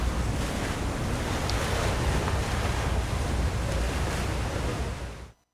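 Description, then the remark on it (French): Steady roar of Mediterranean sea waves rushing against a ship crossing between Algiers and Marseille, heard from its deck, with gusty wind buffeting the microphone, a continuous broad wash of water and air that cuts off abruptly at the end; from the film Des vacances malgré tout. “L'orateur est dos à la caméra sur le pont du bateau face à la mer.”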